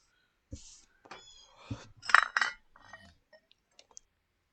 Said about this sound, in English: Got some foley work happening? he's he's doing the dishes.